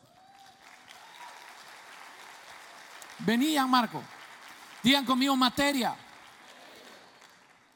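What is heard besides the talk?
audience applause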